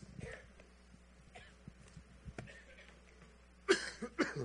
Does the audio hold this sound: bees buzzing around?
no